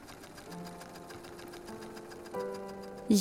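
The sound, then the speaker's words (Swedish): A sewing machine runs steadily with a fast, even ticking rhythm and a low mechanical hum, growing slightly louder toward the end. “Men, men, det är bara till att en ny, sa pappa och satte sig vid sin symaskin.”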